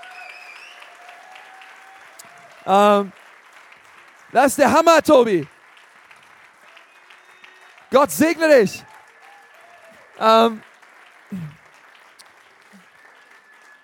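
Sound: audience applause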